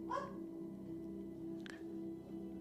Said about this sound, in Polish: Słyszysz jakiegoś psa szczekającego w przedziale.